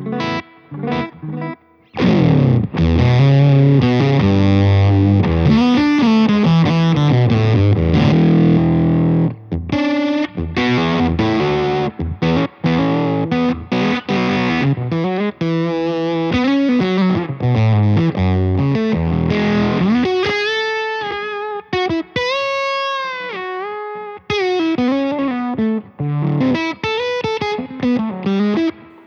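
An electric guitar played alone through an octave-up effects pedal on a thick, fuzzy, fatter and meatier octave setting, with a mix of quick melodic runs and sustained bent notes, loud with no talking.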